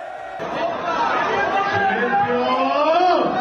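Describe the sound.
A lively crowd of guests at Piqué's party cheers and shouts together, a loud, dense wall of overlapping voices that carries on steadily for a few seconds.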